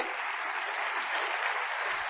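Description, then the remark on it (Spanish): An audience in a hall claps steadily for two friends present there, a dense, even wash of many hands with no breaks, fairly loud and sustained across the whole stretch. “Regálenme un aplauso fuertísimo para ellos.”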